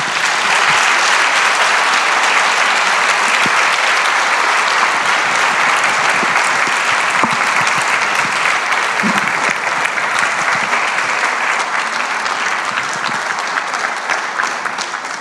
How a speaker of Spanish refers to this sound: recibimos con un cariñoso aplauso.